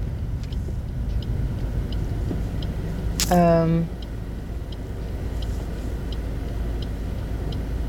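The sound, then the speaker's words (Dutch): Steady low traffic rumble from a line of cars rolling past, with faint regular ticking above it and a person briefly murmuring a hesitation sound. “ik moet even wachten op een, eh, op een hele rij auto's.”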